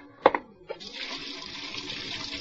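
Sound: hot water running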